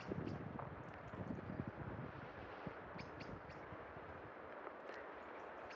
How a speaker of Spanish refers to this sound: de repente escucho de muy, muy lejos el sonido del mar, que me encantaría que fuese como más en primer plano. Me encantaría escuchar más el mar